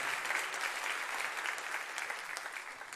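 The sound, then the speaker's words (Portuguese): A large gathering claps steadily in the evening in praise of the name of Jesus, a dense wash of many hands applauding together at an even level for a few seconds, with no voices standing out. “Aplauda o nome do Senhor Jesus esta noite.”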